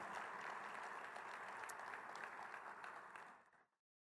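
An audience applauds steadily, a dense wash of many hands clapping at an even volume for about three and a half seconds before it abruptly fades out.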